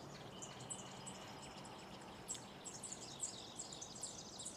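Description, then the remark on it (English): Repeated high chirps and short warbling bird calls over a steady low wash of ambient noise, fairly quiet, with no voices; bird song mixed into a nature-themed music track. “And then to really round off the nature theme, we have some bird song in the mix.”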